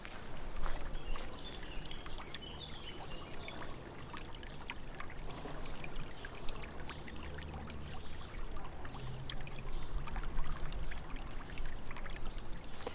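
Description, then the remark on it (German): Water trickles and splashes steadily from a water feature on a university campus, a continuous bubbling pour with soft outdoor ambience and an occasional faint bird in the background. “Anschließend suchst du dir einen ruhigen Platz auf dem Campus hinter der Wasseroase auf einer Bank.”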